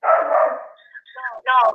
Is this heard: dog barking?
yes